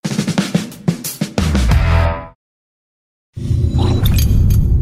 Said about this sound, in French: Ah, il tape, à terre avec son hockey, là. Ben oui, là, il tape à terre avec son hockey, puis là, il doit crier après son petit frère, mais là, son petit frère, il comprend pas.